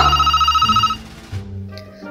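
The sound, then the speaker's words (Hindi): A telephone rings with a fast, trilling electronic warble that lasts about a second, clear and fairly loud, then gives way to quieter low tones and background sounds. “अब तू फोन उठाओ पहले खाना खाओ वरना ठंडा हो जाएगा”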